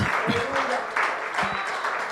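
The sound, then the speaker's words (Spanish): An audience claps together in a steady, dense wash of applause in honor of the King of Kings and Lord of Lords, with a few indistinct voices and shouts mixed into the clapping throughout. “Vamos a un aplauso al Rey de Reyes y Señor de Señores.”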